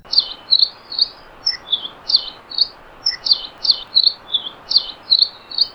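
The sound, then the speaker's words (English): A Nihoa finch sings a lively, canary-like song of rapid high chirps and short warbled phrases on Nihoa Island, repeated in quick bursts over a steady soft background hiss, clear with no voices. “If you're lucky enough to ever visit Nihoa Island, you can't miss their lively, canary like song.”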